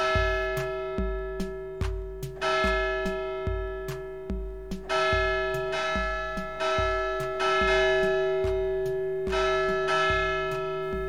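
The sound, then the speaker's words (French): A village church's bells, going haywire, ring out loudly in a jumbled, uneven series of strikes, their clanging tones overlapping and sustaining as the rhythm lurches unpredictably, with no voices present. “Cela fait maintenant des jours et des jours, ou plutôt des nuits et des nuits, que les cloches de l'église du village font n'importe quoi.”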